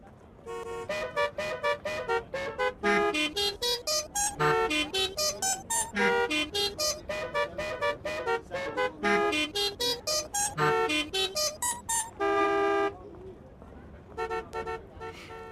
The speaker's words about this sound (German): Ruft mich an und sagt mir, welches Musikstück da gerade so wunderschön gehupt wurde.